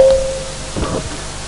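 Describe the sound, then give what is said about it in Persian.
An audience taps one finger each to imitate light drizzle: a soft, scattered patter of many fingertips, faint and hissy against a steady background, with no one speaking. “نمنم داره بارون میاد خنک میشیم الان”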